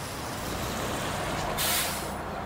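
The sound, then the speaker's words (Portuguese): A bus idles at a dark, deserted bus stop under steady engine rumble, then lets out one loud, sharp hiss of air brakes that lasts under a second before the low drone continues. “Agora imagina, o meu medo era acontecer alguma coisa aqui nesse ponto de ônibus, porque estava escuro, porque era mais deserto.”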